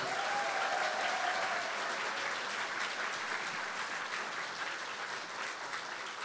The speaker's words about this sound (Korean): 우리 멋진 연주를 보여준 호남 랩런트 오케스트라에 다시 한번 뜨거운 박수 부탁드립니다.